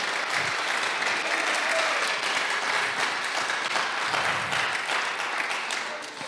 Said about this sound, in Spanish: Dale un fuerte aplauso al Señor, aleluya, porque Él se lo merece.